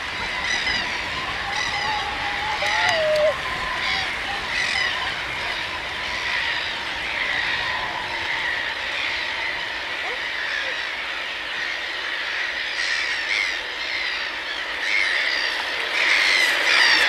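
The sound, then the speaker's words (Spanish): A flock of birds calls steadily overhead as it passes near a house under dense clouds before imminent rain, dozens of overlapping squawks and chirps forming a dense, continuous chatter, with no voices. “Una parvada de pájaros pasa cerca de la casa con un canto preocupado por la lluvia inminente.”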